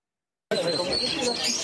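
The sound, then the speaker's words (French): A dense mix of caged birds chirping and tweeting at the bird market on the Île de la Cité in Paris, with a murmur of voices and general bustle underneath, starting abruptly after a brief silence. “Le célèbre marché aux oiseaux de l'île de la Cité à Paris va fermer le 1er janvier prochain.”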